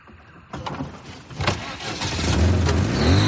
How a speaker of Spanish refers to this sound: Ahora tranquilo. Ve soltando muy despacio el embrague. El coche se cala.